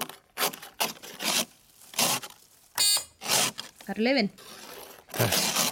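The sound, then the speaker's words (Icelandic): Repeated rough scraping strokes as someone scrapes ice off a car windshield on a December morning, in an uneven rhythm of short loud bursts, with a brief squeaky tone between them and some talking. “Það er einhver að skafa þarna framrúðana á desembermotni ah, Já, auðvita”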